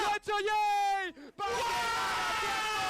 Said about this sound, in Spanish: ¿Han gritado así de verdad, tío?